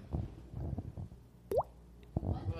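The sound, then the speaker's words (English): A single mouth-made water-drop 'bloop', a quick upward-sliding pop, stands out clearly over muffled voices and background chatter, followed by a few more low murmurs. “I can make that water drop noise though.”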